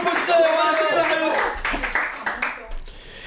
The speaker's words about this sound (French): Est-ce qu'on pourrait juste l'applaudir parce qu'elle a un niveau de stress